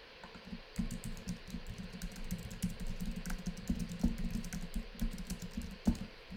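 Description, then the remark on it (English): Someone types a text message on a phone to their child, a quick, irregular run of soft taps and clicks, continuing steadily for several seconds with no one speaking. “Hold on, I have to just text my kid, tell her I'm gonna be a little bit late.”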